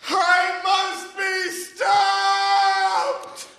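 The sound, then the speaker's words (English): A person lets out a long, loud, strained scream imitating a cobra's shriek, holding a steady high pitch across several breathy bursts for nearly four seconds, with no other sounds around it. “The cobra raises his head to the skies and screams.”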